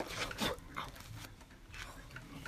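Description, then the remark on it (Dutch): A dog pants in quick breathy bursts and lets out soft whimpers, quiet, with faint background noise throughout. “nee, joh, het is hartstikke akelig hier met al die katten en honden.”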